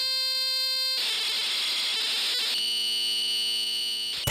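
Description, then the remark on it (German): Harsh, continuous electronic screeching of a home computer program's data loading from a cassette tape: a steady buzzing tone, then a noisy hissing burst of data, then another steady buzzing tone. Loud, with no voices. “tatsächlich nahm man damals Computerprogramme auf Kassette auf.”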